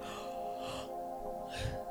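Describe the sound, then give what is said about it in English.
A long, drawn-out yawn from one person, a steady voiced groan with breathy inhales and exhales swelling near the middle and end, and no talking. “Excuse me, sorry for yawning.”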